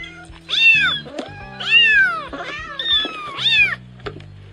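Several cats meow in quick succession, about four drawn-out, rising-and-falling cries spread over a few seconds, loud, with no talking.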